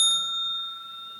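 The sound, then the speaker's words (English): A single bright ding of a small bell at a debate, struck once and left to ring out with a clear, sustained metallic tone that fades slowly. It sounds moderately quiet, with no voices. “When there's a speaker on, if the other team wants to bring up a point of information, they can do so after the first bell,”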